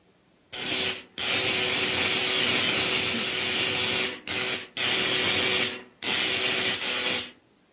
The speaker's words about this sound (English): Now, I adjust these dials, turn on the electrical generator, and.